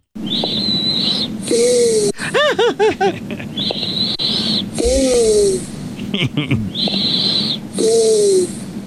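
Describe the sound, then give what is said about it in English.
A man's buzzy, nasal snore with a tonal, kazoo-like whine, repeating in three loud breathing cycles, each with a wheezy high drone followed by a pitched, squeaky exhale. “This next snore is called the kazoo. I've named it the kazoo.”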